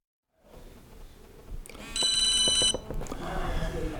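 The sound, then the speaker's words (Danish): A phone rings once with an incoming call during an on-call shift at home, in a short, bright electronic trill that stands out over a low background of guests chatting faintly. “Og nu har vagten så været i gang et par timer, og pludselig tigger der et opkald ind.”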